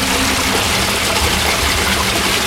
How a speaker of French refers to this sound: en mettant le pied au fond, je n'arrive pas à me tenir debout. Et là, comme la rue est fort en pente, il y a un débit euh, dingue.